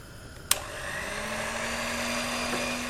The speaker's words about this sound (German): Bis das Fett richtig heiß ist, kannst du den Teig nochmal durchrühren. Hier hast du den Mixer.